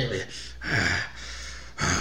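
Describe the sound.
A voice imitates heavy, labored, out-of-breath panting: several loud, breathy in-and-out gasps in an uneven rhythm, with no talking.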